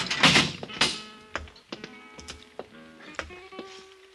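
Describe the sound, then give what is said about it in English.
A heavy steel grill door rattles and clanks open, with a burst of scraping followed by several sharp knocks and ringing metallic tones that linger and fade, fairly loud. “His eyes flickered slightly as Parral and I opened the steel grill door.”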